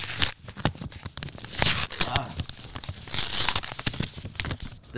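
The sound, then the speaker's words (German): Crisp paper tearing and crinkling in several bursts as an envelope holding a letter is slowly ripped open, with bits of quiet talking around it. “Damit auch jeder hört, dass wir es aufmachen.”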